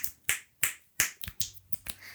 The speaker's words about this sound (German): Kann ich gescheit schnipsen?